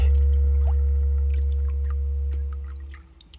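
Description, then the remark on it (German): A deep, sustained underwater rumble of a fart bubbling up through bathwater, with small splashes and drips scattered above it, loud and close, trailing off near the end. No one speaks. “Hast du gerade ins Wasser gepupst?”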